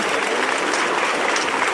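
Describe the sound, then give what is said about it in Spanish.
A large crowd breaks into sustained applause and cheering as the door of a basilica opens, a dense, steady ovation without pause for the whole moment. “Pues mira, aquí se escucha, se escucha ya el cerrojo de, de la puerta de la basílica, que ya se abre, la ovación”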